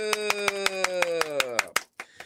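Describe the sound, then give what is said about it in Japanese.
A quick, steady run of about a dozen sharp hand claps, fairly loud, over a sustained voice-like tone that slides downward before the clapping breaks off near the end. “そこでしばらくはポッドキャストで登場いたします拍手”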